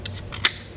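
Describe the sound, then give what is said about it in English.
A beer can cracked open: a few quick metallic clicks of the tab, then a sharp pop with a short fizzy hiss trailing off. No voices. “Listen to this sound.”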